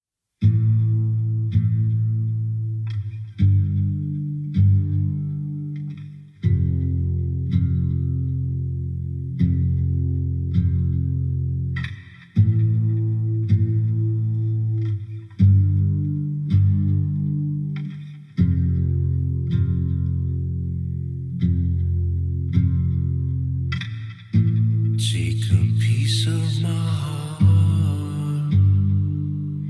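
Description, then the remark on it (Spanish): Ambient electronic music track from an EP: steady, droning low synth chords shift every few seconds under sparse ticking accents, with a bright, hissing swell rising near the end. No voices. “en una etapa de música más espiritual, con eh, música un poco más ambiental. Y algo de lo que ha editado en su anterior EP es el tema que vamos a escuchar a continuación”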